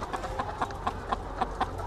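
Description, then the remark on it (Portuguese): Caged hens, about 50 per cage with less than one square metre each, cluck in short, steady bursts over a constant low mechanical hum in an indoor poultry house, the calls repeating at a quick, even pace, with no talking. “50 galinhas por gaiola, menos de um metro quadrado para cada.”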